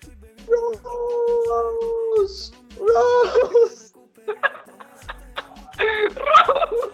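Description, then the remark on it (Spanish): A person gives a drawn-out, wavering falsetto wail imitating a small trout screaming as it died of hypothermia, like a howl, followed by rising, strained squeals and laughter-like cries, loud. “Ahí la truchita gritó:”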